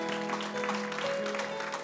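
A church audience claps for Christ, a dense wash of applause at moderate loudness, with a sustained organ-like tone holding underneath.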